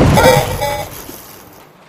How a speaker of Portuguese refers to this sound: Um tiro ecoa no deserto estéreo. E vocês olham, procuram a fonte do tiro e vocês veem montado em cima de um cavalo robótico.